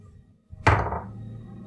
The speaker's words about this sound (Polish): Dobrze, słuchajcie, 50% szans powiedziałem, czyli jeżeli wypadnie 11 bądź więcej, rzucam K20.